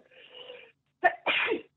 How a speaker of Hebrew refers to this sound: סורי. לבריאות. אה, תודה.